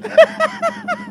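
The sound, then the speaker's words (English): A vibrating tool buzzes steadily with a low, even drone, pulsing in quick rhythmic bursts as it presses against a nail to vibrate it out, while brief voice-like sounds rise over it. “It's like you hear that? It's almost like a Bloop.”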